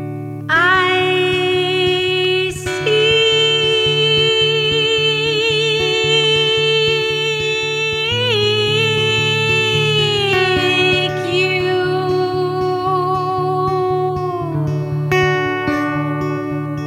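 An instrumental song by a guest musician plays: bright, sustained electronic-sounding tones with slight wavering glide over a steady, pulsing low bass line, holding an even, fairly loud level with no voices.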